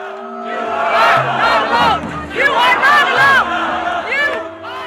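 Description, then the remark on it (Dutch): At an Extinction Rebellion demonstration against fossil-fuel subsidies in the Netherlands, hundreds of people along the roadside cheer on the protesters: many overlapping voices cheer and chant, rising and falling in loud, sustained bursts over a steady low rumble. “En langs de kant staan nog eens honderden mensen ze aan te moedigen.”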